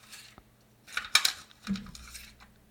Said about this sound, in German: Hol mal ähm, raus, bitte. Also die Kassette. Ist auch ein geiles Geräusch.